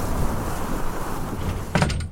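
A steady roar of hot, sandy storm wind fills the scene, then near the end a man pushes the door of a tomb shut with a short thud and rattle before the wind drops back.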